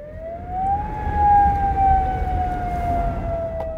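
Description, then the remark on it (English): A loud emergency alert siren wails in one long sweep, rising briefly then slowly sliding down in pitch, steady over a low rumbling background with no voices. “Nobody's at the radio station, but the emergency alert's all set.”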